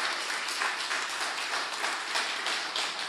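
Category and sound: crowd, audience applauding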